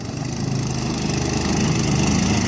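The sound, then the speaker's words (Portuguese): A boat motor drones loudly and steadily during a night crossing from Portel to the Floresta Nacional de Cachuanã, a constant engine hum with a low rhythmic throb and no pauses. No voices are heard. “E ela me disse que o que ficou gravado na memória dessa travessia foi o barulho do motor, alto, constante e um pouco incômodo.”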